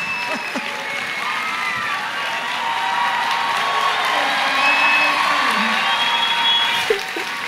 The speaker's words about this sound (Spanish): Así que un, eh, un aplauso especial para mi esposa.